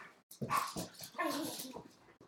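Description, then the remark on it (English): A dog named Dobby, in the back, lets out a run of high, strained barks and whimpering whines over a couple of seconds, with no talking. “And that would be our dog Dobby in the back making all that noise.”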